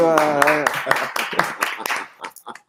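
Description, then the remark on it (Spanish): A short burst of applause: about ten sharp, evenly spaced handclaps in a quick steady rhythm, fairly loud, thinning out at the end, with a brief voice at the very start. “Un aplauso ahí.”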